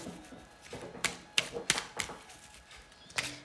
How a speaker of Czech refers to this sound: A já už se dívám na vaši fotku, míchám u toho karty a my se spolu podíváme nejdřív teda eh, na ten partnerský výklad.